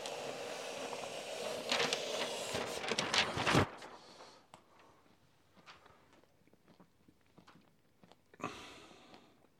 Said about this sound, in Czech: Počkej, já tady teď to, co slyšíte, je flipchart.